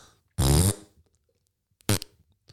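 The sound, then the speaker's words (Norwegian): A loud, buzzy fart blasts for about a third of a second, followed after a pause by a second, shorter raspy toot. No one talks. “Hvem har best promp?”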